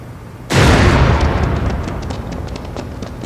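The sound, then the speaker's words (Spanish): A sudden loud blast of an explosion knocking down a door as police burst in on kidnappers comes after a quiet moment, followed by a long rumbling decay with scattered debris-like crackles and clatter trailing off. “Tras una explosión que derriba la puerta, la llegada de la policía toma por sorpresa a los secuestradores que de inmediato abren fuego contra los oficiales mientras corren para no ser aprendidos.”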